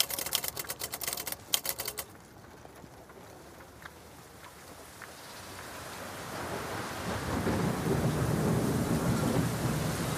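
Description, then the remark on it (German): A burst of rapid, sharp clicks opens, then heavy rain swells into a dense, steady hiss, heavy drops pattering loudly on grey cobblestones and growing fuller toward the end. “Schwere Regentropfen fallen auf das graue Kopfsteinpflaster.”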